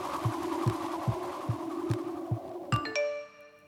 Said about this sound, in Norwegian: Seinere på kvelden tikker det inn en SMS fra Evelyn.